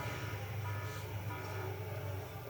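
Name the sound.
alarm beeping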